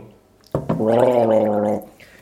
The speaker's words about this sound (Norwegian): Hva du prøver å illustrere der med denne gurglelyden?